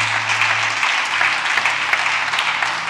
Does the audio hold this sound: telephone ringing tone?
no